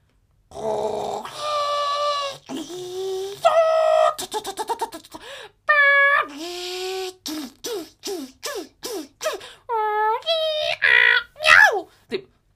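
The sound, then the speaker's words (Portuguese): A voice imitates the strange noises of a printer printing a mostly blank A4 page: a string of warbling whines, rapid stuttering buzzes and rising and falling squeals, one after another for about twelve seconds, with no other talk. “Os sons que saem daquela máquina de impressão”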